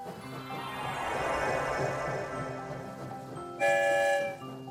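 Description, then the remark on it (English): A train rumbles steadily through a tunnel with a dense, echoing roar, then a loud, bright whistle blast sounds near the end before fading. No one speaks. “I wonder where the story train will lead us this time.”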